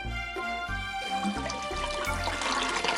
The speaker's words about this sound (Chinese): 哗啦啦，一只大海龟从水里钻了出来。